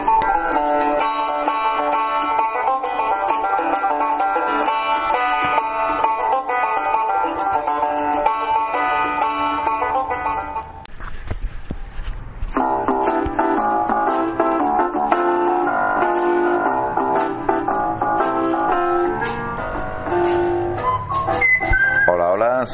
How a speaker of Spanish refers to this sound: Y esto que suena de fondo es la sintonía de la película Días de Radio de Buddy Allen.